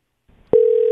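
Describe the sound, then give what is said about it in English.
A phone line begins ringing: after a faint rustle, a steady electronic ringback tone starts abruptly and holds unbroken at a fairly loud level, with no one talking. “okay it didn't even ring this isn't good you have reached the voicemail.”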